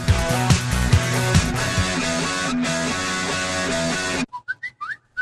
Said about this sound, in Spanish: No, no es tu teléfono, es el inicio del espacio publicitario.